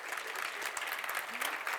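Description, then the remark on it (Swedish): An audience at a church conference claps warmly and steadily for a speaker, a dense wash of many hands applauding at moderate loudness throughout, with no voices standing out. “en varm applåd”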